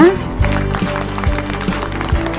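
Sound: clapping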